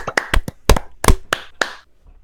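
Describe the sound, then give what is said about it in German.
A short burst of applause at a seminar, congratulating someone on being named "alcoholic of the week": about seven sharp, loud hand claps in a slightly uneven rhythm, lasting under two seconds before fading into quiet. No one speaks. “Einmal einen Applaus an Marius bitte dafür, dass er Alkoholiker der Woche geworden ist.”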